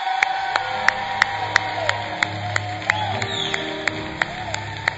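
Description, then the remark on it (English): An audience gives the Lord a hand clap to celebrate two people, clapping in a steady, rhythmic beat, the sharp claps evenly spaced over a continuous murmur of crowd noise and cheering throughout. “So can you all give the Lord a hand clap”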